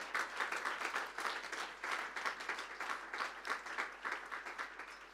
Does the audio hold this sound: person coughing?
no